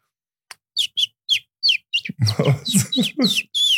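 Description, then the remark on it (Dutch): A person whistles a convincing imitation of a chirping bird: a run of short, high tweets that quickens into a louder, fuller warble, with no talking. “Dat is echt maar als je daar hoort, denkt u toch echt dat er een vogeltje is?”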